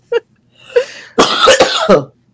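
cough

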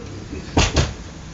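door being closed

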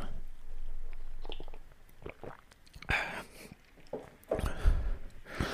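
sipping coffee

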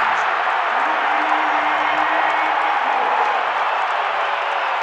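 arena crowd cheering

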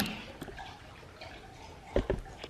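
person drinking water

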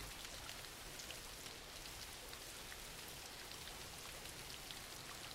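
rain falling

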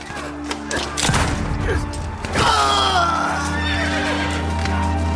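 horse neighing

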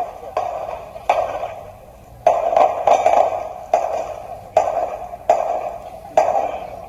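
gunshots

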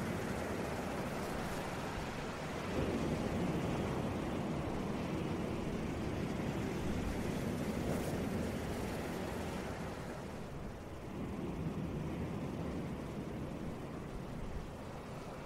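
ocean waves and surf

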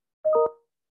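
phone notification alert tone

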